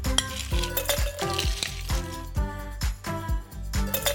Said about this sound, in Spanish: Aquí les va la preparación. En nuestra copa vamos a colocar suficientes hielos.